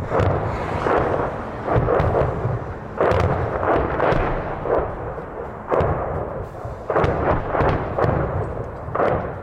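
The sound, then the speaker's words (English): A sustained barrage of Russian artillery fire and shell explosions slamming into a nearby town in Ukraine, with a dozen or so heavy, sharp-edged blasts landing at irregular intervals over a constant loud, rumbling roar. No one speaks. “Slamming into the nearby town, edging closer to us.”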